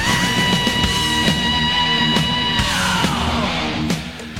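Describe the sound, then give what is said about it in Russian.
A thrash metal singer screams over loud, dense distorted guitars and steady pounding drums, the harsh sustained yell cutting through the full-band roar for the whole stretch. “Кричать очень красиво, да. Это, это пение у них называется.”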